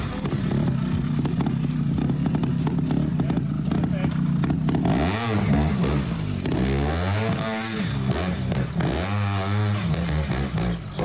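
A motorcycle ridden during training in a forest drones steadily, then revs up and down in repeated rising and falling sweeps as the bike accelerates and brakes. It is loud and continuous, with rattling clatter throughout.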